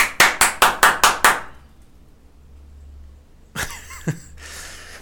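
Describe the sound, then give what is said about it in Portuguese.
A quick, even run of about seven sharp hand claps, fairly loud, followed by a low steady hum and then a short burst of rustling noise with a knock. “Deu de a bater palmas.”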